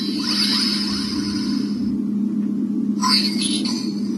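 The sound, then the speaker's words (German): An electronic toy whirs up over a steady low hum with a high, wavering tone, then after a short pause a brief, tinny synthesized voice says its name, the single word "Brainstorm". “dieses Teil sagt Brainstorm seinen Namen.”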